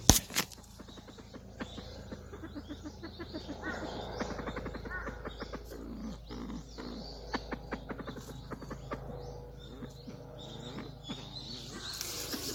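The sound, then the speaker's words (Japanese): A copper pheasant, about one to one and a half metres away and coming toward the listener, calls in a busy run of short clucks, clicks and grumbling notes in an irregular rhythm over a steady outdoor background. “もう一度声を聞いてみようと思います。”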